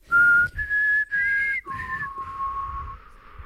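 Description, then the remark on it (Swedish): Someone whistles a short melody imitating a text message tone once used as an SMS signal: a few clear notes that step upward, then slide down to a longer, lower held note, with no talking. “Eh, ska berätta för dig att eh, det var min sms-signal ett tag.”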